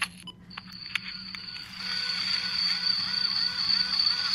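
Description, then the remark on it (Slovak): A queen honeybee pipes at night in a rhythmic run of short, repeated tones, fairly faint, answered by another queen still in her cell, over a steady high-pitched cricket whine and a low background hum. “To je matka? To je matka. Ona takto píska a druhá je píska.”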